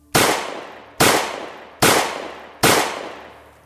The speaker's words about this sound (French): Alors, j'ai tiré encore quatre fois sur son corps qui ne bougeait plus.